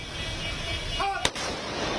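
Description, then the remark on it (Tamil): One sharp, loud crack of a ceremonial gun salute volley, fired all at once in honour of the body of famous playback singer, who died in Kolkata, rings out over a steady hiss of outdoor background noise. No further shots follow. “கொல்கத்தாவில் உயிரிழந்த பிரபல பின்னணி பாடகர் … உடலுக்கு துப்பாக்கி குண்டுகள் முழங்க மரியாதை”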